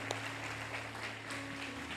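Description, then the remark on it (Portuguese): An audience claps steadily to applaud God, a dense, continuous patter of many hands at an even level, with low sustained keyboard notes droning underneath. No one speaks. “Aplaude a Deus por isso.”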